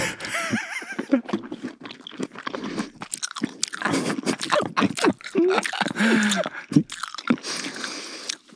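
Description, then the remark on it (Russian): Wet, squishy chewing of a mandarin orange right into a microphone, with irregular smacking and crunching bursts continuing steadily for several seconds and no talking. “Я не могу ничего сказать, ты чавкаешь микрофон.”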